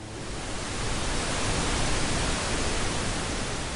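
pink noise

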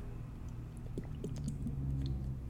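person drinking water

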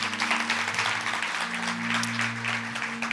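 audience applauding

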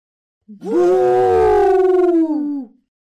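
elephant trumpeting loudly

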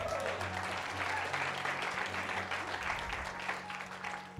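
audience applauding

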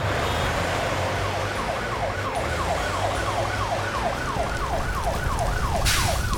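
emergency vehicle siren

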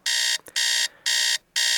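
alarm clock going off

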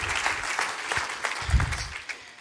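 audience hand clapping

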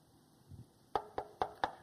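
knocking on wood

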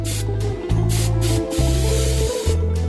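perfume being sprayed

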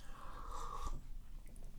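sipping coffee

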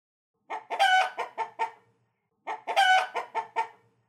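chicken clucking

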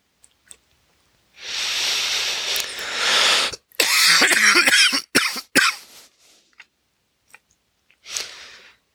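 coughing

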